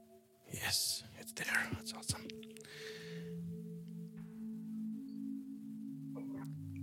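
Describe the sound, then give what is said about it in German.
Gusty, airy whooshes rise and fall near the start, then settle into a low, sustained eerie drone with soft wind-like hiss, an ambient windy soundscape effect called Abyssal Gaze, with no talking. “You hear the wind again.”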